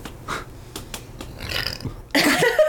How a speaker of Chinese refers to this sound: 我打嗝。